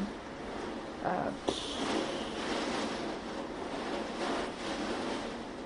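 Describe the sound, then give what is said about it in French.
A steady, dense hiss of heavy rain from a violent thunderstorm outside pours without a break, fairly soft, with a couple of brief louder splashes or gusts near the start. “vous allez sans doute entendre la pluie derrière, il y a un orage de folie.”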